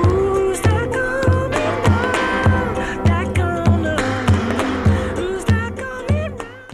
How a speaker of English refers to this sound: Now for the outro, let's play it in stereo and then in mono where it's slightly longer.